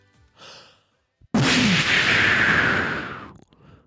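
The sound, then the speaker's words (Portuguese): A sudden, loud rushing hiss of a smoke bomb bursts out and sustains for about two seconds before cutting off, preceded by a faint breathy sound and short silence. “Bombinha de fumo.”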